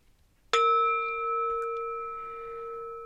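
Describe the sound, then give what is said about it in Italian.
A single service call bell ding from a call bell at a restaurant kitchen pass, struck once with a bright metallic ping that rings out clearly and slowly fades over a few seconds, heard alone with no talking. “chiede dove tenere il campanello di richiamo al pass.”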